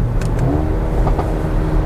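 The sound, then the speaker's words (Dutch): A four-wheel-drive car's engine revs loudly, a deep steady rumble rising in pitch, with several sharp exhaust crackles and pops breaking through. No one speaks. “En hij klappert lekker uitlaat.”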